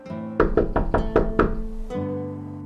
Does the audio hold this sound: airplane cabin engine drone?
no